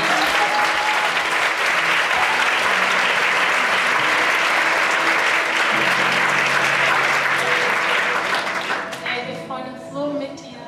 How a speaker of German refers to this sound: Können wir diesen Frauen einen Applaus